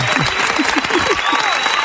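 Steady, dense clapping from an audience welcoming a guest on a show, a loud continuous patter of many hands, with a few voices faintly mixed underneath.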